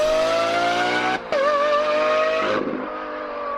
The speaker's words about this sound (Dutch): de Ferrari V12 en de Lamborghini V12. Ja man, het is, het is echt, ja, het is zo gaaf. Dit klinkt al op de koptelefoon al zo hard.